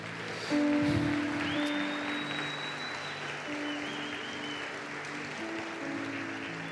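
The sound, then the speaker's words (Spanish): Audience applause for the wives swells suddenly and holds as steady, dense clapping throughout, with sustained musical tones ringing underneath and no voices on top. “Un aplauso a las esposas.”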